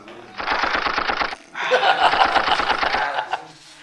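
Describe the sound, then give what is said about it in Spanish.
Two bursts of rapid automatic gunfire sound effects, like a machine gun, each a fast, evenly spaced string of loud shots, separated by a brief pause. “Voy a poner balazos en su”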